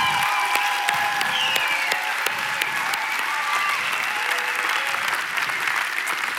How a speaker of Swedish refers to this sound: Vilket eh, teknikteam vilket liksom folk som är runt omkring. Kan vi inte bara ge dem en applåd?